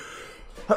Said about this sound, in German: Uh, Gesundheit. Wow. Entschuldigung.